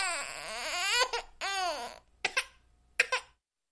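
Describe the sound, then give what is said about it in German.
An infant wails in two long, strained cries with rising and falling pitch, followed by short gasping sobs and a final brief cry. The crying is loud, with no other voices. “Und ist nicht das Geschrei eines Babys dem Äh verwandt?”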